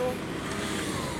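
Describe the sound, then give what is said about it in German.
A car's engine and tire noise rumble steadily, a broad, even roar of road traffic filling the short moment without pause. “So. Auto.”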